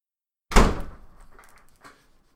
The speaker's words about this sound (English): She did not need to slam that door.